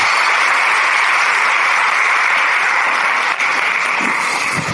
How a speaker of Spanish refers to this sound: Así que yo quiero que me ayuden a recibir con un gran aplauso.